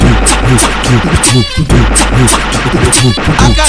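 Loud, rapid bursts of automatic rifle fire crackle in quick succession over a pounding rhythmic beat, the sharp reports repeating steadily with brief gaps between volleys.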